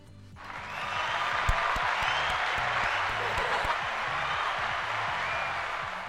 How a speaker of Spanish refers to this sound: Un aplauso. ¿Tienes ahí aplauso?